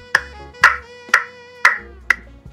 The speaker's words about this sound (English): Do you, hear me clapping, Mr. Obvious? Like Captain Obvious?